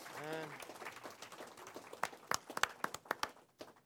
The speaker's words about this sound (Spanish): Podemos darle otro aplauso al Señor Can we give our Lord Jesus another round of applause?